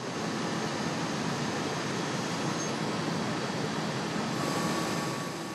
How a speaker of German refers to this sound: Die Maschine schlichtet, dreht und bohrt.